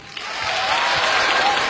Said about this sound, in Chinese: 大家就假装认识我，鼓鼓掌。